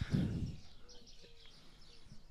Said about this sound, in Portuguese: Eu não sei se o pessoal consegue ouvir os, os pássaros todos aí